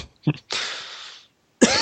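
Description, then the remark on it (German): A person with a slight cold coughs, a short throaty bark followed by a long, harsh, rasping expulsion of air, then another hacking cough starts after a brief pause. No one speaks. “ja, ich muss mich entschuldigen, ich bin leicht erkältet, also äh, diverse Husterer äh, äh, äh, bitte ich zu entschuldigen.”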